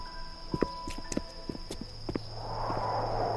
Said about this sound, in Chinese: 忽然，我感觉身边多了一些脚步声，侧面一瞥，是一个年轻的男人，神色很是焦急，手里拿着手机，正往一栋楼走去。